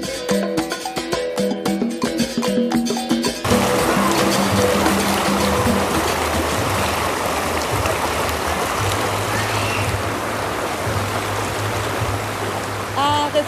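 Brief music at the start gives way to a steady rush of water from a small waterfall in a hot river, a natural whirlpool where hot water comes out of the ground, continuing loud and unbroken to the end.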